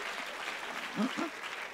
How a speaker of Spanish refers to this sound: Dele fuerte el aplauso al Señor.